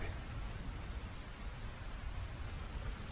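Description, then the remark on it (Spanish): Steady rain falling, a dense, even hiss of drops that holds constant throughout with no pauses, moderately loud. No voices are present. “detrás de los cristales, llueve y llueve.”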